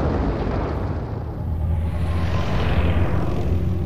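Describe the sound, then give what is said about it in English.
A starship drive rumbles continuously, a deep, loud, roaring drone that swells slightly partway through and stays steady to the end, with no voices. “A starship drive.”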